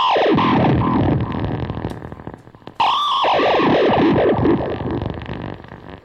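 A guitar plugged into an effects pedal, with any string played triggering the pedal, produces a heavily processed, distorted synth-like tone with warbling, swooping pitch sweeps, a brief dip, then a loud renewed burst of the same effected sound.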